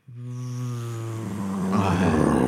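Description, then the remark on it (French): A voice imitates a plane crash, the way a video game's combat music begins: a steady low droning hum that grows louder and breaks into a rough, noisy roar, held for about two seconds. “Un combat avec le, cette musique qui commence par oui. un crash d'avion, qui fait.”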